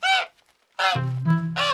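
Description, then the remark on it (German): A goose honks three times in short, loud, nasal bursts with a brief pause after the first, while a lower droning honk runs beneath the later calls. No one speaks. “Kapitel 2 Die Gans”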